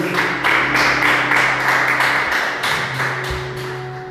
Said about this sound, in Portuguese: Pode aplaudir o Senhor mais uma vez?